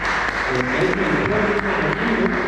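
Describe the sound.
Loud, steady applause from a crowd, a dense patter of many hands clapping throughout, with a few voices calling out beneath it.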